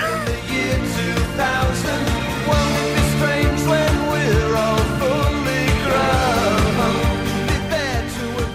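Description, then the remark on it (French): An upbeat Britpop dance song plays loud, with a steady four-on-the-floor beat, bright synths and guitars, and a sung melody riding over the full band throughout. “c'est euh, …, un des, des, sommets du Britpop selon moi”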